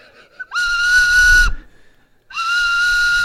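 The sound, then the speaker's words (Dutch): Two long, shrill blasts from a person blowing a whistle, each lasting about a second, separated by a short pause. They are loud, with a breathy edge to the steady tone. “Dan zwemt zij naar de, eh, iemand met een fluitje en dan hoor je dus het geluid,”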